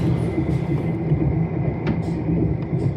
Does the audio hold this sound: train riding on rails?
yes